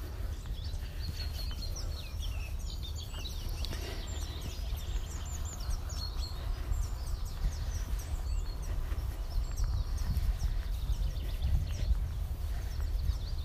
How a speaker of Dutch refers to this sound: Misschien kun je bij mij op de achtergrond de vogeltjes horen.